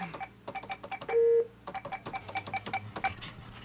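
Telephone keypad tones as someone dials a phone number: one loud, steady beep lasting about a quarter second, then a few short, faint blips amid a busy stream of light clicks and taps.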